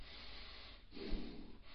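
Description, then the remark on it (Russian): A person imitates the harsh, angry breathing of a child in a fit of anger: rough noisy snorts and huffs of air through the nose, swelling louder in the middle, heard alone without speech. “Так дышат гнев”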